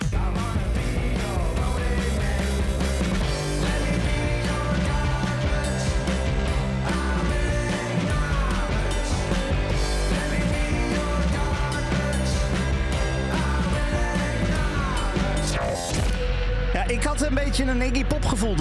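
A loud, dense stretch of full-band rock music from a single by a four-piece band from Antwerp, Belgium, plays continuously, with heavy bass and drums, bright distorted guitars, and what sounds like a sung vocal riding on top.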